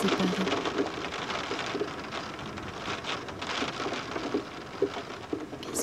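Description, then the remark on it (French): Steady rain patters on a surface just beyond a window, a dense, continuous hiss of drops with occasional louder taps, and no voices. “ça te fait D'être séparé de la pluie.”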